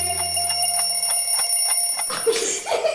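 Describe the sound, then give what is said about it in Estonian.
An alarm clock rings in a fast, steady series of bright, high-pitched electronic pulses for about two seconds, then cuts off and gives way to a short burst of other noise. “su kell.”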